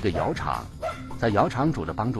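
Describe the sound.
Dogs bark in short, repeated yelps mixed in with a voice talking steadily over them; the barks are moderately loud and come in a few quick bursts.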